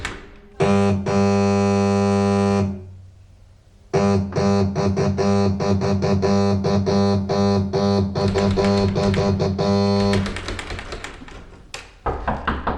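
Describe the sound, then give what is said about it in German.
A loud doorbell rings, first with one long buzzing tone, then after a short pause with a rapid run of repeated rings that ends in a rattling clatter. No one speaks. “Klingel mal.”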